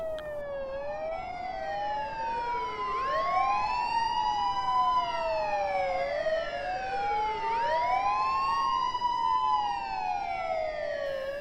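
Ambulance sirens wail steadily, their tones sweeping up and down in overlapping cycles. The sound is loud, with a faint road rumble beneath and no voices.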